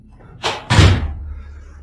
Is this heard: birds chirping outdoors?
no